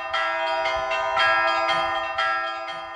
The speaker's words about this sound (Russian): Теперь звонница даже в будние дни радует всех колокольным звоном